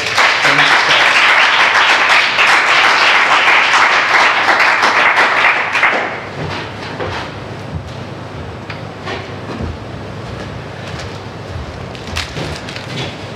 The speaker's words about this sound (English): and I want to ask everyone else just to put a round of applause.